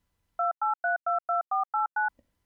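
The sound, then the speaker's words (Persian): Eight short, evenly spaced electronic phone tones beep in quick succession as a number is dialed on a telephone keypad to place a call. The tones are clear and are followed by a faint click and silence. “بعد از یک هفته دوباره زنگ زدم”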